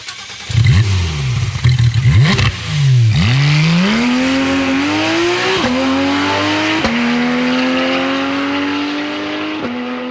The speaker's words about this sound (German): Welcher der drei Motoren-Sounds gehört zum schnellsten Modell der 911 GT-Reihe? Welches ist das schnellste Modell?